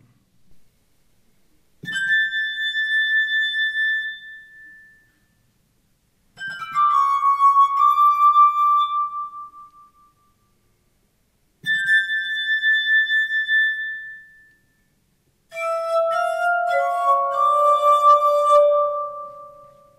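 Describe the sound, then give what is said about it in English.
A set of tuned musical glasses plays a classical tune as a slow melody in four sustained phrases, each with clear, pure bell-like tones that shimmer and fade, heard alone without any talking. “as the first one who actually put together a, a, a decent set of musical glasses, tuned them all up, and could play properly the, the classical tunes.”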